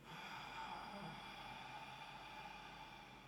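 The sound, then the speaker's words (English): A voice imitates the steady, breathy inhaling of someone having a panic attack, one long airy intake after another with no audible exhale, fairly quiet. “So it looks like this. Just constant inhales.”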